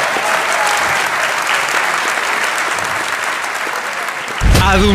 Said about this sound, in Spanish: Bueno, estamos en Merlo, señores. Así ¿eh? es. Estamos en Merlo, se pueden aplaudir ustedes mismos que son de acá.